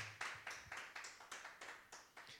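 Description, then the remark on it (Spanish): An audience applauds for the Lord during a sermon in a steady, rhythmic clap, about three beats per second, even throughout. No voices can be heard over the clapping. “Un fuerte aplauso para nuestro Señor y vamos a orar.”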